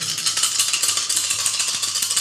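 Dice rattle and clatter steadily, a dense run of rapid bright clicks with no pauses, like several dice being shaken and rolled together. No one speaks.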